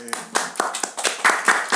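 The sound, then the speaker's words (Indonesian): Hand clapping applause, a steady run of quick, sharp claps at a lively pace, moderately loud, with no speech over it. “Ini ramai tepuk tangannya ya.”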